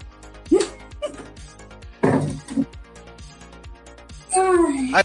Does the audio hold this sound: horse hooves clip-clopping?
no